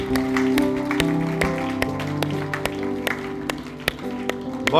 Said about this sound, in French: Est-ce qu'on peut donner une bonne main d'applaudissement à notre Dieu qui nous aime?